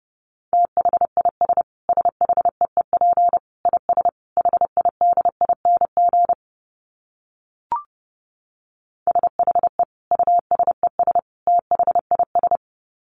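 Rapid Morse code at about 30 words per minute: a steady mid-pitched beep keyed on and off in quick dots and dashes, breaking off midway with a brief click before resuming.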